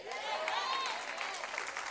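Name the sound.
audience clapping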